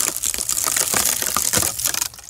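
A wooden bed base cracks and creaks in a dense run of sharp, splintering snaps and crunches, fairly loud and continuous for about two seconds before easing off. No one speaks.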